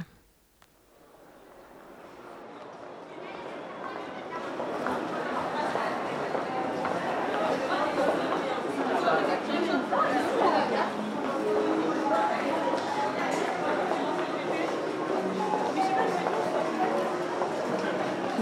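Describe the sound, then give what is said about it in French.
Busy indoor crowd murmur fills a shopping mall walkway lined with restaurants and clothing shops, many overlapping voices and footsteps blending into a steady, dense hubbub that swells in after a quiet start and stays loud throughout. “Donc on est au milieu du forum dans une des allées où il y a euh, des magasins de restauration ou de vêtements.”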